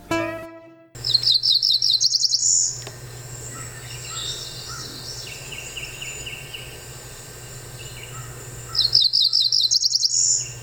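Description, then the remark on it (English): A cerulean warbler sings twice, each song a quick run of high, buzzy notes rising to a trilled buzz, with other faint birds and a steady low hum in the background. “The cerulean warbler is a small songbird of the warbler family, only about 4.3 inches.”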